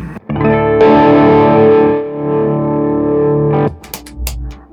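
An electric guitar played through an overdrive pedal with the gain at maximum and the tone set around twelve o'clock; a heavily overdriven chord rings out loud and sustained for a few seconds, thick with distortion, then cuts off into a short burst of scratchy string noise.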